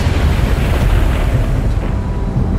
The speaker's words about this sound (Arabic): صعق البرق قمة الصخرة التي يتسلقها عم سندباد